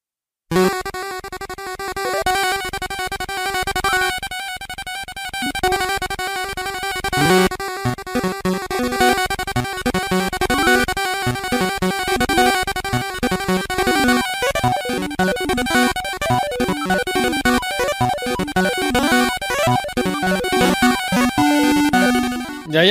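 Loud, dense orchestral music plays without a break, full strings and brass surging in a driving, galloping rhythm, with no voices over it.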